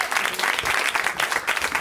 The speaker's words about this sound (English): Oh, just a just a thunderous round of applause